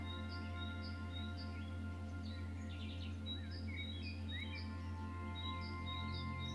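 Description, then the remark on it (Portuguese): Birds sing in short, repeated chirps and whistles throughout, fairly faint, over a steady low droning hum with no one speaking. “Respira com atenção e consciência e agradeça a presença deste pássaro sagrado.”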